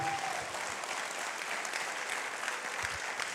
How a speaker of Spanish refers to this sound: Vamos a darle un aplauso de fe al Señor.